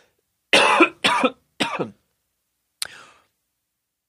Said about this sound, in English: Excuse me for coughing in everybody's ear.